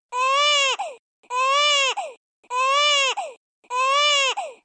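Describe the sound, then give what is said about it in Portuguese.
A baby's wailing cry, the restored crying sound of Mario, repeats four times in identical, evenly spaced bursts, each ending in a short catch, like a looped video game sound effect, loud with silence between. “restauraram o choro do Mario.”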